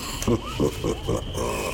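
Dense jungle ambience with a steady high insect-like hiss and a run of four or five low, grunting animal calls in quick, fairly even succession, moderately loud, with monkeys clambering about overhead.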